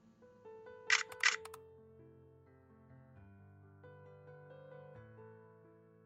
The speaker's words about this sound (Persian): خنده دیوانه کشی کرد و دوربینی که اون لحظه رو ثبت کرد